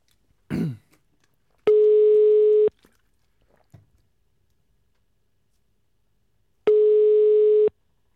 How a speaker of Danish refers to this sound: Oh, der er en, der er en klartone.